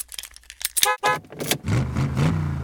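Keys jingle and a car door thuds shut, then the car engine starts and settles into a low, steady idle rumble, with no one speaking; someone getting into a car to drive two kilometres to the gym.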